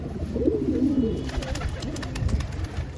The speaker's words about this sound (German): Die Tauben gurren in offenen Holzverschlägen, Manche starten und landen gerade auf dem bunt angestrichenen Turm.